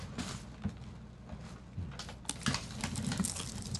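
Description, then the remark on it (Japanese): Crisp crunching of someone biting into and chewing fried chicken karaage, a steady run of dry, crackly bites and chews at moderate loudness with no talking. “みんないっちゃってください、あのバリバリ言って食べていただいて結構なんでね”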